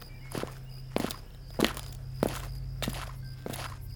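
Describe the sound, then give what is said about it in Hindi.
Footsteps of three people walk along a road through a deserted village toward a house at an even, unhurried pace, about six distinct steps over a low steady hum, each a soft thud with a slight scrape, with no voices. “राजू उन दोनों को लेकर सन्नाटे में बने एक मकान की तरफ चल दिया”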